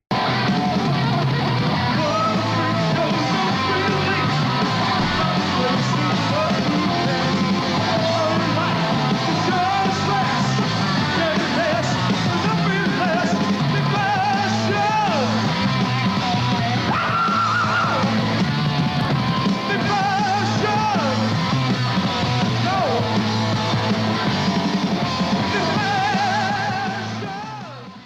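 A loud, dense live rock performance recorded in Munich, Germany, with distorted guitars, pounding drums and a shrieking, yelling vocal, the full band roaring steadily throughout with a raw, crowded sound.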